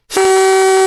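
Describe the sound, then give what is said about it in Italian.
A single loud blast from a novelty horn called a trombone, blown by a woman, one steady brassy tone held for just under a second, with no voices around it. “Che è un trombone, no?”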